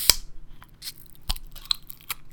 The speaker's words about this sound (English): so anyway, here it is. Here's the opening. It's actually a opposed um, to a can. It's a bottle top. So here we go.